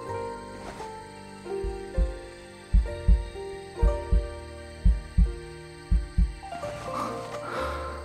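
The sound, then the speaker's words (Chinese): A heartbeat, listened to in order to tell whether someone is drunk, pounds in steady, deep double thumps, about one beat per second, over a soft sustained musical drone that swells near the end. No one speaks. “得听心跳才判断得出来。”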